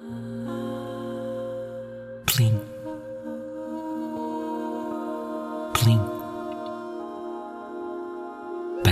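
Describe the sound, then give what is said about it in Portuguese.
Water drops fall one at a time, a few clear plinks spaced several seconds apart, ringing over a soft, steady humming tone in the background. “parecem gotas de água a cair na lagoa, uma gota de cada vez.”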